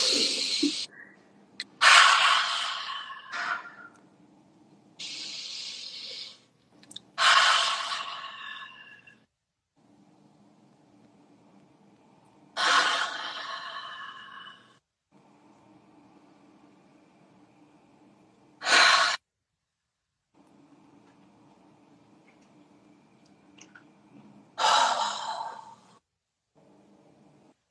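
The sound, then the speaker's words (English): Slow, deep breaths of a guided breathing exercise, drawn in and pushed out, each loud, airy exhale separated by quiet pauses, repeating in an unhurried rhythm with no talking. “awesome okay let's do some breathing”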